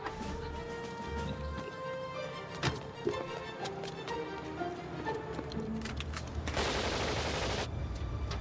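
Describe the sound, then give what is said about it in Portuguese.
Scattered gunshots crack over a steady, tonal background, followed by a dense, noisy burst of automatic fire from a submachine gun in a film, lasting about a second near the end, loud. “Que empunhadura de submetralhadora, hein?”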